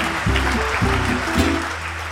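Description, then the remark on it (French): A crowd claps steadily, a dense, even wash of applause that holds at the same loudness throughout, with some low tonal sound running underneath. “Merci d'applaudir encore une fois.”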